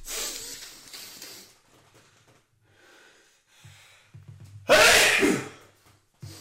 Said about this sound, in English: Oh, God, I'm going to fucking sneeze.